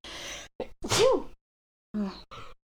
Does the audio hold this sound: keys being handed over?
no